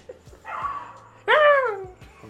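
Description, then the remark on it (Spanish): A neighbor's dog gives two drawn-out, whiny barks, the second louder and sliding down in pitch, heard on its own with no one talking. “Hay un perro, no sé si lo oyen, es el perro verga. es el perro de mi vecino.”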